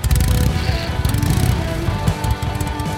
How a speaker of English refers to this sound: In 1996, it attempted in vain to trademark its beloved engine noise, the so called potato potato, created by the syncopated firing of two cylinders.